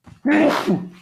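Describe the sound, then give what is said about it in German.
A single loud sneeze bursts out suddenly with a voiced, breathy rush that trails off after about half a second, preceded by a faint intake of breath. “Gesundheit.”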